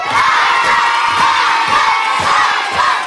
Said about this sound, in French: Il y a de l'encouragement évidemment de la part des, spectatrices et spectateurs euh, dans cette, belle salle de classe à l'école de la gare à Montferrand-le-Château.